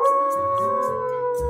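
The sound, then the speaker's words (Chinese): A wolf howls in one long, steady, loud note with a slightly falling pitch, joined by soft, hissy rustles that recur at regular intervals. No one speaks. “没多久，又来了一匹狼。”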